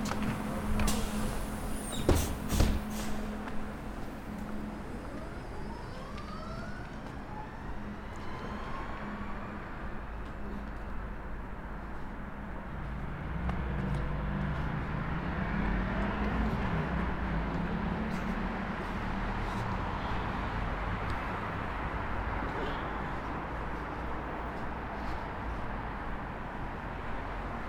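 A night city bus that came at 11:58 drives, heading to the Hepingli Beijie stop: a few sharp clunks at the start, then a steady low engine rumble and road noise whose engine tone rises and shifts as it accelerates. No one speaks.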